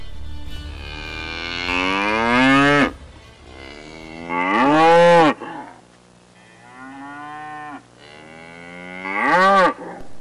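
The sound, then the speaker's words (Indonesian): A black cow moos several times in a row, long drawn-out bellows that rise and swell with an insistent, restless tone, loud, with short pauses between calls. “lembu itu mengeluh. Suaranya terdengar tak sabar.”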